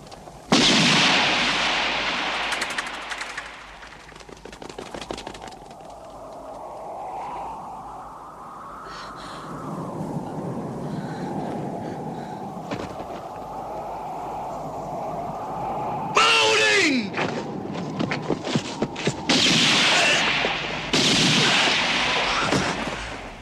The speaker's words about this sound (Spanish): El padre sorprendido mira hacia todos lados y solo puede ver cómo su hija cae fulminada. La carrera que emprende hacia ella es una lucha por la supervivencia, recibiendo tiros en todo el cuerpo hasta que cae abatido.